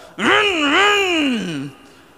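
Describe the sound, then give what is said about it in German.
A single voice imitates a saw cutting into the base of a tree while someone sits up in the tree, a sustained, buzzing whine about a second and a half long that rises, wavers and then trails off, fairly loud. “und der Baum fängt an zu vibrieren, weil mein Vater unten schon den Baum ansägt, während ich oben im Baum sitze und das Seil befestige.”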